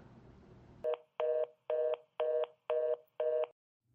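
Six evenly spaced telephone keypad tones beep in quick succession after a brief stretch of low background noise, each a clear, steady dual-tone chirp with short gaps between.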